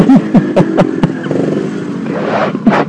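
A nearby motorcycle engine revs in a series of sharp bursts, loud and close, with a rough idling rumble between the throttle blips.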